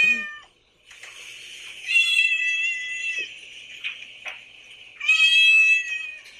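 A cat meows loudly and insistently, with drawn-out, strained cries repeating several times in close succession, the strongest calls near the start and end, with no talking.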